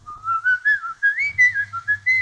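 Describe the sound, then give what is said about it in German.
A person nervously whistles a short melody, the tune wavering and breaking off between phrases, a little unsteady and imperfect, with a low hum underneath. “Sein häufiges Pfeifen. Nervös, wenig perfekt, immer wieder abgebrochen.”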